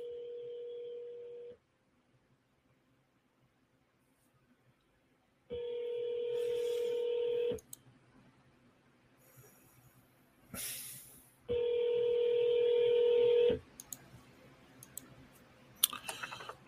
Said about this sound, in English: I'm calling him on the phone.